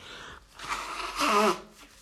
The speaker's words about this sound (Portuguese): Tive que assoar o nariz e não me apetece parar isto nem fazer cortes.